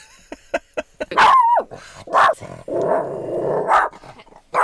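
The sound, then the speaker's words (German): A small female dog barks agitatedly at a few dogs outside, a quick run of sharp yips followed by several louder, drawn-out barks and a growly whine, with no talking. “Sie sieht äh, ein paar Hunde da draußen und äh, sie ist voll genervt.”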